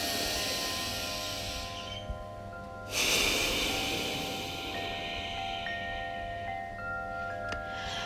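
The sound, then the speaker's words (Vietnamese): Slow breathing in and out through the nose, not the mouth, during a guided breathing exercise, with one fuller, louder inhale partway through, set against a steady airy background with faint sustained tones. No one speaks. “mình bắt đầu thở hít vào thở ra bây giờ mình hít vào và thở ra qua đường mũi không thông qua miệng nữa nhé”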